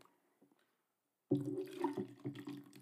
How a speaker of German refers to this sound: Wasser einschenken, ja, kann ich gerne machen. Genau, einmal ein Stückchen Wasser bitte. Ich danke dir.